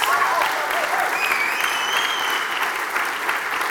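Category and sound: crowd, audience applause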